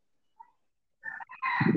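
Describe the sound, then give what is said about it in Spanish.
A rooster crows loudly, a strained, rising call that starts after a brief faint chirp and continues to the end without a pause. “Ahí está otra vez nuestro amigo el gallo.”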